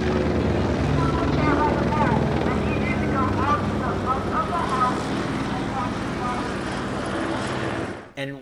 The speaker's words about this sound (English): they started talking to us on the loudspeaker. The the, the police helicopter. Um, what were they saying?